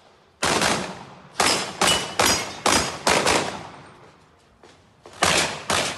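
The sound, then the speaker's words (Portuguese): A rapid series of sharp pistol shots, about eight in quick succession with brief gaps, each a loud crack that rings out and decays, as a sport shooter clears obstacles and fires at different targets. “Em vídeos publicados nas redes sociais, ele aparece empunhando a pistola do crime, vencendo obstáculos e atirando em alvos diferentes.”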